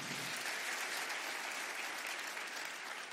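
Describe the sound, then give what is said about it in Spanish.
An audience applauds the Lord steadily, a dense, sustained wash of many hands clapping at an even loudness throughout, with no voices standing out. “Dele un aplauso bien fuerte al Señor.”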